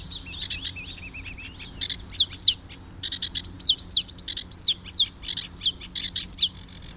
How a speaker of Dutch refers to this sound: De rietzanger vlak achter ons zingen. Hier, daar gaat hij. Zo, wit wenkbrauwstreep.